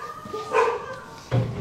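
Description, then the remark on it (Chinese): A dog lets out two loud barks about three-quarters of a second apart, each a short, full-throated burst, with a faint steady hum underneath and no one speaking. “这是狗怎么都……天哪，我有点害怕。”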